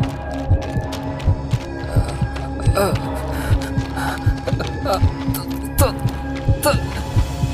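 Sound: fast pounding heartbeat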